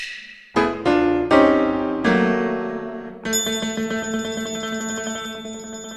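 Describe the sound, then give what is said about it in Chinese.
An electric bell rings out in bright metallic strikes, several in quick succession that each shimmer and fade, then settles into a steady, sustained ringing with no voices present. “那时候，我们上了年岁的医生听到了通知他去就诊的电铃声，奇异的经历。”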